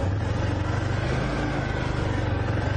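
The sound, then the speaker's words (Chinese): An all-terrain vehicle's engine holds it back on a steep downhill slope without the brakes being used, at about three to four km/h, giving a steady, low, throbbing drone with a rough mechanical texture that stays even and moderately loud throughout, with no one talking. “然后这一路上呢，我根本不用踩刹车，因为只要用它的发动机制动，就可以把车子拖得很慢。”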